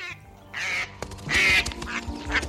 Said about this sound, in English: A couple months before all this, these two wild ducks landed on my pool. It was amazing. They're from Canada or someplace, and it was mating season